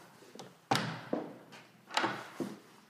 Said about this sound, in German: Da klopfte doch tatsächlich schon wieder jemand an die Tür.